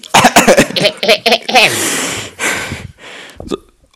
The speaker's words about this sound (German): Muss ich mich räuspern hier, weil das so wichtig ist.